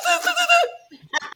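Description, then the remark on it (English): A voice imitates a toilet plunger squelching: a loud, drawn-out, warbling nasal tone, then a short pause and a few quick gurgling, sputtering bursts. “It sounded like, you know, when you're plunging a toilet and it's like, go, go.”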